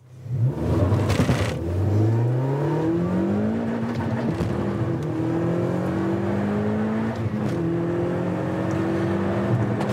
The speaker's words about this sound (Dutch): Ondertussen knal ik even door met een Jaris richting de 200.